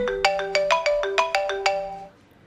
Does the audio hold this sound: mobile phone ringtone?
yes